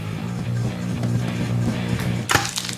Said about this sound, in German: Klick. Vor allem das Geräusch. Knochenbrech. Das Geräusch. das Geräusch ist geil. Das voll fies. Der Hebel knallt voll auf die Maus rauf.